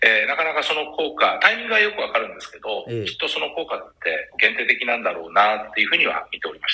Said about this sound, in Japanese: ちょっともしかしたら音が割れてる可能性があるんで、若干あの、初めてのこの遠隔なので、携帯電話を少し離していただくこととかできますかはい、これ部屋がエコーしてるのかな多分。